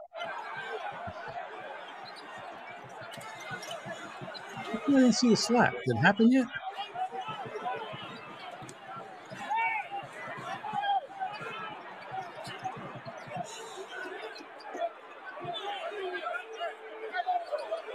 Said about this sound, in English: Well, the odd thing, all this squeaking noises makes it sound like the game's being played still. still does sound like the game.